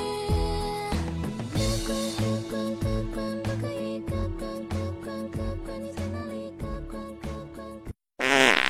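A string of buzzy, low-pitched fart sounds pitched into a bouncy tune over backing music, running steadily before a brief silence and a short hissy burst at the end.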